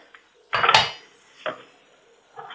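A knife cuts half a lemon into wedges on a cutting board: three irregular chops, the first heavier and longer, with quiet pauses between and no talking.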